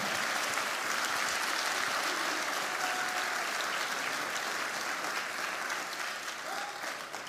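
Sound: audience applauding loudly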